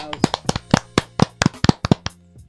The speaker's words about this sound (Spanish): ¿Se merecía aplauso o no se merecía aplauso?